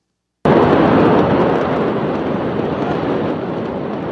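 A huge bomb explosion in Beirut erupts suddenly out of silence, then rolls on as a loud, dense roaring rumble that fades only slightly over several seconds, with no voices.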